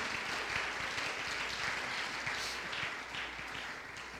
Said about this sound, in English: Is there anybody that feels that way tonight? Clap your hands and praise Him if you feel that way.